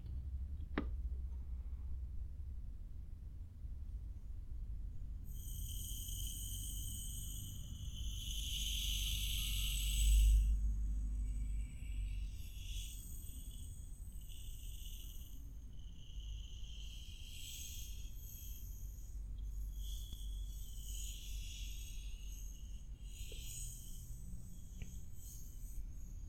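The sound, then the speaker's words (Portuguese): Sand pours out in a steady, grainy hiss that starts after a few seconds and keeps running with slight surges, over a low background rumble. There is no talking. “estão a deixar-se levar pelo som da areia a sair”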